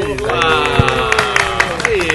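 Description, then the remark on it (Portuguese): A small group claps in scattered, uneven bursts while voices whoop and cheer over it, lively for about two seconds. “Salva de palmas.”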